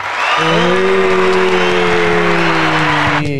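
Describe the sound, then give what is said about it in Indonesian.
Loud, dense audience applause fills the whole stretch, a steady wash of clapping with a sustained low tonal drone or held cheer running beneath it before it cuts off near the end. “Kita tak tepuk tangan.”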